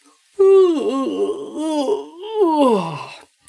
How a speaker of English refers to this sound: Then he yawned loudly